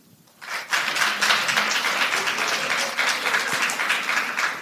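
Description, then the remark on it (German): A live audience bursts into applause after a brief quiet start, the lesbians present clapping for those who dislike the word 'Lesbe', many hands in a dense, steady crackle that stays loud and even for several seconds. “Kann ich mal bitte von den Lesben, die da sind, mal einen Applaus kriegen für die, die Lesbe nicht gut finden?”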